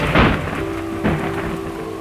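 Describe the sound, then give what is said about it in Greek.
Steady rain hisses throughout while thunder rumbles in two heavy bursts, one near the start and another about a second later, with no voices. “Σύντομα έφτασε και ο παγωμένος χειμώνας με τις λευκές νυφάδες του χιονιού τους ψυχρούς ανέμους και τις άγριες καταιγίδε.”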